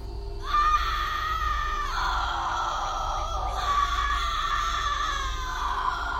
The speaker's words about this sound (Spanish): Mientras estaba allí, enloquecido por el intenso dolor que sentía en las piernas y en la cabeza, oí que mis compañeras empezaban a gritar de nuevo.